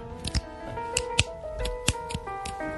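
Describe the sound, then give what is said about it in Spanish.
Several sharp, crisp finger snaps ring out at uneven intervals, prominent over a steady bed of sustained tonal background music, given as a hypnosis cue. “Cuando escuchas el chasquido de los dedos de este cuerpo extraño, tú vais a decir la segunda frase.”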